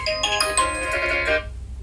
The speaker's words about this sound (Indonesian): eh ada yang telepon